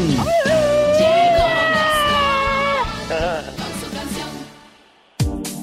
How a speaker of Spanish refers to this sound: ¡Échate un grito alterado, viejón.